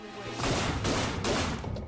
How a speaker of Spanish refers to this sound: Y luego escuchó los disparos.